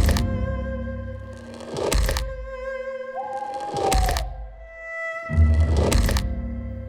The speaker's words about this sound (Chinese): 突然，远远的、越来越大声的脚步声传了过来。呃，年兽真的来了！